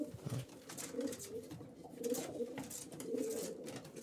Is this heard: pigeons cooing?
yes